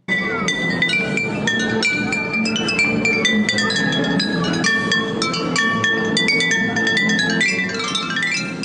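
A melody from Carmen tapped out on old glass aperitif bottles, bright clinking notes at shifting pitches in a quick, steady rhythm, ringing tones overlapping throughout, with no voices.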